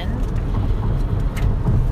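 Steady, dense low rumble of a moving manual-transmission car heard from inside the cabin, with road and engine noise holding an even level throughout and faint hiss above.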